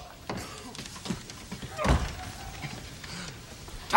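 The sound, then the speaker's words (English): A woman knocks on a door: a few dull knocks, spaced irregularly, with one heavier thud in the middle and another at the end, heard against a faint background hiss. “She knocks.”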